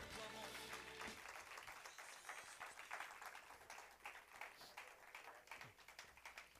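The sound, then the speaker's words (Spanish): A church audience bursts into loud, sustained applause for the Lord, many hands clapping densely and steadily for several seconds, briefly overlapping a low sustained tone at the very start. “Gloria a Dios, porque lo de fuerte aplauso al Señor.”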